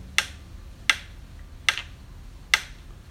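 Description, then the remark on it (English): Four sharp, evenly spaced taps of a pencil on a desk, used to time a film dissolve, each a crisp click with a quick decay, set against quiet with no talking. “in with a pencil on the desk, and it never came out wrong.”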